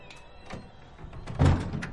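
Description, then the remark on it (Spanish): A house door swings shut as Nelson and Winnie enter their home, a dull, low thud about three-quarters of the way through, preceded by a softer knock and faint background murmur. “Cierra la puerta.”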